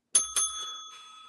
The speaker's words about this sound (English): You rang the bell at your own joke. yes, I did. It's a punctuation mark.